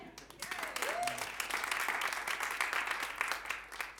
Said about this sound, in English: You give, you clap again.